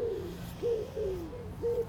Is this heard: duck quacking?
no